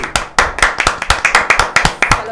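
A few people clap their hands together in a quick, steady burst of about a dozen sharp, loud claps over two seconds, with no talking.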